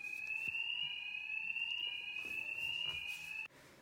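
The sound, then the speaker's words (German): A hospital fire alarm, set off outside a doctor's room by someone cooking food, sounds one steady, piercing electronic tone for about three and a half seconds, somewhat muffled, then cuts off abruptly. “So, für alle, die sich wundern, dass das jetzt ein bisschen komisch klang, wir sitzen hier im Krankenhaus in einem Arztzimmer und die haben draußen den Feueralarm ausgelöst, indem sie Essen gekocht hat.”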